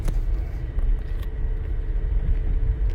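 Steady low road rumble fills a moving car's cabin, a continuous dense drone with faint faster hiss above, no voices, just the constant engine and tire noise of driving.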